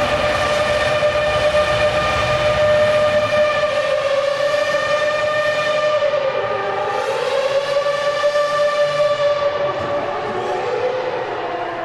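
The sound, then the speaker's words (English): A racing car's engine howls past on a narrow circuit inside Wembley stadium in a loud, sustained, siren-like whine that dips in pitch a couple of times, with a hollow echo ringing off the stadium walls. No one speaks. “That sounds like an air raid siren with all the echo as it bounces off the walls of Wembley here.”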